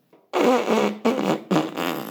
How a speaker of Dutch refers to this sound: … snuit zijn neus in zijn schort.